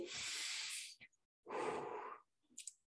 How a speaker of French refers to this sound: Grande respiration ici.